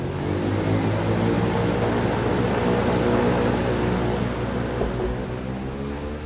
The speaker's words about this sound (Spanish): ¿Dónde fue? ¿Qué fue eso? ¿Qué pasó? No, esas son avionetas narco, boludo, no. Esas no son aviones, son avionetas narco.